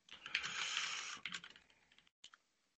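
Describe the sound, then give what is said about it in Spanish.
Rapid typing on a mechanical keyboard, a dense burst of clacky keystrokes that thins into a few scattered presses before trailing off. Fairly loud, with no talking. “Pero es que tu teclado es mecánico, ¿sabes?”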